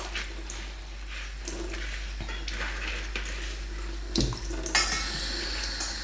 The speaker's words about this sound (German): Okay, jetzt spüle ich das auch wieder mit kaltem Wasser aus.